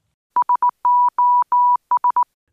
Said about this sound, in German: Nach langen Diskussionen einigte man sich auf das von Deutschland vorgeschlagene SOS als offizielles Morsezeichen für Notfälle.